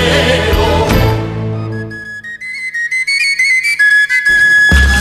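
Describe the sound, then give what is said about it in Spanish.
A slow, gentle instrumental passage: a full, sustained chord fades out, then a soft high melodic line, like a flute or whistle, plays unhurried notes alone before another swell of sound begins. “Bueno, esta musiquita tan tan lenta, tan pausada que hemos, que hemos escuchado.”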